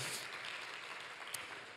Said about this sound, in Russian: Слава Господу! Дайте большие аплодисменты.